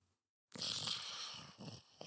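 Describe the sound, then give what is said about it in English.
A rough, raspy snore from the character Shar in the room next door rattles loudly after a brief silence, sustained for over a second with a gravelly low rumble and breathy hiss, then trails into a couple of shorter snorting breaths. “You hear Shar snoring next door.”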